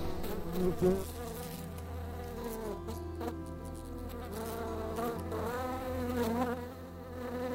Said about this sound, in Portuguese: Uma mosca passou voando em frente aos seus olhos.